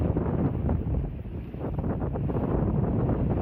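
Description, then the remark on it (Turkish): Strong storm wind in Muğla roars and buffets a microphone without pause, with rumbling surf churning underneath on a rocky shore where many boats were driven onto the rocks and smashed; a loud, continuous outdoor storm ambience with no voices. “Muğla'yı da fırtına vurdu. Kayalıklara çıkan birçok tekne parçalandı.”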